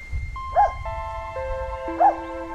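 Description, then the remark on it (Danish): A golden retriever gives two short, high-pitched barks about a second and a half apart, over a faint low rumble and a few steady electronic tones. “Det er en golden retriever.”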